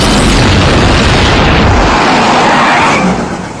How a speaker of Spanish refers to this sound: Parece que hubo una explosión en la casa de los Simpson.